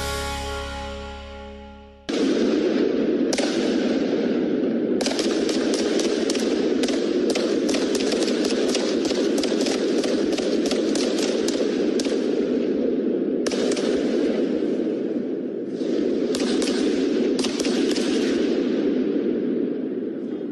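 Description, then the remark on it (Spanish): Loud, rapid gunfire crackles almost without pause, sharp overlapping reports forming a dense, rattling barrage for many seconds after a brief tonal sound at the start, with no talking. The gunfire is from a real shootout at a shopping centre in Zapopan, around 5 in the afternoon. “Balacera en centro comercial de Zapopan”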